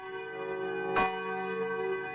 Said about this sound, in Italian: Nelle scuole, nelle università, nelle chiese, nei municipi, centinaia le campane che hanno suonato all'unisono alle 18 un minuto, nel ricordo del leader del movimento per i diritti civili.